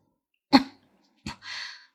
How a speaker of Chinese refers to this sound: 一阵剧烈的咳嗽堵住了他的喉咙。